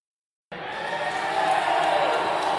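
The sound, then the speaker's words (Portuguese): A stadium crowd of Brazil fans erupts into loud, sustained cheering after a brief silence at a Brazil versus Bolivia football match, a dense roar of many voices that holds steady and swells slightly toward the end. “A torcida comemora”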